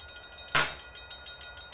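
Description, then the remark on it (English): A short train sound effect used as a stream alert for a hype train: a sharp, bright whistle-like burst, then a steady run of rhythmic clacks like wheels on rails, moderately loud with no talking. “Uh, by the way, we got a hype train going.”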